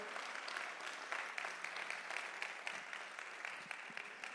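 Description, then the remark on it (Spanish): An audience claps steadily for several seconds, a dense, even wash of many hands with crisp individual slaps popping out of it. No voices stand out. “Alguien le da un aplauso.”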